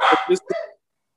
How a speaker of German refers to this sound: Ah, die Fußhupen. Ne? Alarm im Haus. Fuß, Fußhupenalarm. Genau.